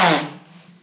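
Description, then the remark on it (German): A single sharp sneeze, a loud, breathy burst that fades quickly into a low, lingering hum, with no talking during it. “Gesundheit. Boah, danke.”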